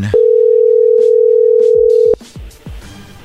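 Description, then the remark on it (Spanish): A telephone call ringing on the line: one loud, steady mid-pitched tone held for about two seconds, then cut off, leaving quieter background noise with a few soft knocks. “A ver, ahí va la llamada, Lobo.”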